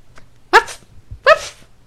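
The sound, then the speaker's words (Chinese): An excited puppy on a playground gives two short, bright barks less than a second apart, each a sharp yappy burst, with nothing else but a faint low hum between them. “小狗狗，而且狗狗一看到它，好兴奋哦！”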